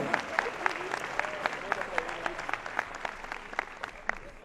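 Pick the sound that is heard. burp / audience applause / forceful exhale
audience applause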